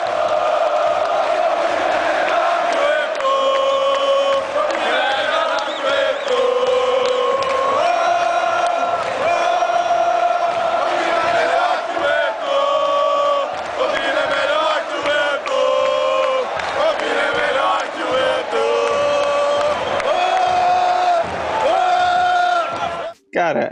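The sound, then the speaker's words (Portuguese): A large stadium crowd of Flamengo football fans chants in unison, a loud, continuous sung chant with rising and falling melody that carries on for over twenty seconds before cutting off abruptly. “grito veio da torcida do Flamengo lá em 2006, depois da passagem dele pelo Palmeiras, e até hoje eu tento entender por que a torcida fez isso.”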